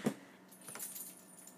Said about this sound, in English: Let me go get some dice, and I'll roll perception. Roll, roll, yeah, roll a perception yeah. check. All right, ready? I'm gonna actually roll some dice.